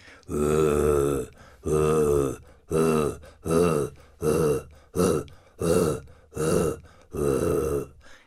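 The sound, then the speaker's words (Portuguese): A male jaguar's roar: a series of about nine slow, deep, rasping grunts in a steady rhythm, loud, with short pauses between each one and no talking. “O, do, do, o esturro do macho é mais lento, mais grave, mais pausado, né?”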